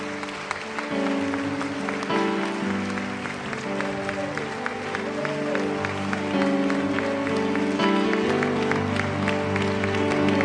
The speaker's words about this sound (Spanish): Fuerte ese aplauso para Jesús.